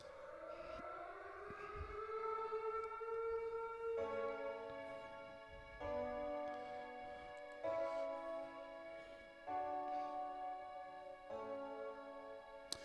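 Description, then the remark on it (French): A loud, continuous alarm tone at the start of a video rises in pitch over the first few seconds, then pulses in a repeating pattern of steady blasts with short breaks, harsh, with no voices. “Là, faites pas peur, soyez sans crainte, il y a une petite alarme au début, là, mais il y a du son.”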